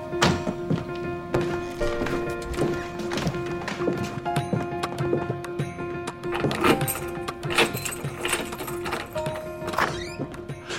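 Hard footsteps tap steadily across a floor toward a door, followed by a thunk as the door is opened for a visitor standing outside, with a constant tonal hum running underneath.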